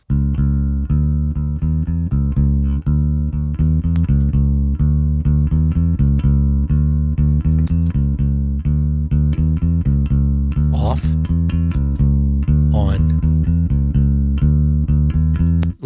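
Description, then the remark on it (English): Bass guitar played finger style, a steady stream of round, even low notes with a firm rhythmic pulse, fairly loud, with a couple of brief sliding squeaks partway through and no talking. “Yeah, and let's try like like with some finger style”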